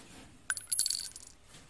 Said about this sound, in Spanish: Le golpeó y el empaquetador cayó, y con su cara golpeó la caja de balas que cayeron sobre el suelo.